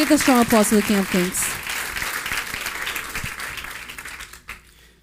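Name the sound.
loud applause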